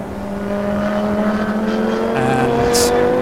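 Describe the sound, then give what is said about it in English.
The 5.2-litre V10 engine of the number 7 Lamborghini Huracan race car drones steadily with a sustained, layered tone that slowly rises in pitch as it accelerates out of the cut-through onto the Grand Prix circuit, loud and continuous, with a brief high hiss near the end. “So the 7 Lamborghini Huracan with its 5.2 litre V10 engine heads out of the cut through on the Grand Prix Strecke”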